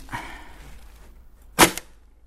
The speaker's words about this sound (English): Ranger Duncan Kay tests out a spring loaded trap near the South Island's Tai Poutini National Park.